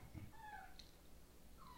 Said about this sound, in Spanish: Por cierto, ahí se escucha un ser de la naturaleza, un perro que quiere comer, por cierto, por cierto.